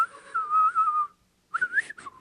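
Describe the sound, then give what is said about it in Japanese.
A whistled birdcall imitation of a warbler, made by whistling while inhaling: a long sustained whistle tone, a brief pause, then a quick rising-and-falling warbled phrase, clear with no talking. “俺あのそもそも口笛が前言わなかったけど俺吸うやつしかできねえの吸うバージョンのお願いします”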